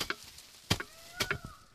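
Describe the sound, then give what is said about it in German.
A reed thatcher on a ladder uses a wooden knocking board to clear moss from a reed-thatched roof in the Altmark: a handful of irregular, dull thuds with a dry scraping edge, with a faint whistling tone in the background. “Gerade steigt ein Reddachdecker auf einer Leiter nach oben und entfernt mit einem Klopfbrett das Moos.”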